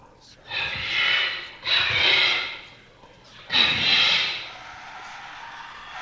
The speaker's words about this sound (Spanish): Cerré el diario de un sobresalto al escuchar un susurro en mi oído, seguido de unos gritos que hicieron que me estremeciera.